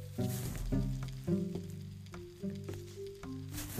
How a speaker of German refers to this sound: Der brutzelt die Mobs oder was?